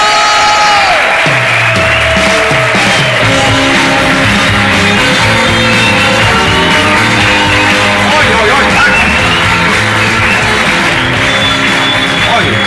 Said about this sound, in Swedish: Fan vad härligt. Då tycker jag att vi ger en varm applåd